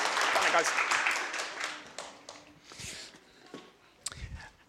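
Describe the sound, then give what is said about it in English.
An audience applauds together to wish someone a happy birthday, a dense burst of clapping that starts loud and gradually thins out and fades over a few seconds, with a few scattered final claps. “So let's give her a round of applause and we wish her a happy birthday.”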